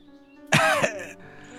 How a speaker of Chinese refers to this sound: 牙妃子尴尬的咳嗽了一声